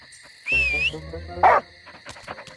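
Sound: dog barking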